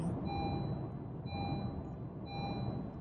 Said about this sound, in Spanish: perdón, este carro se metió así sin permiso alguno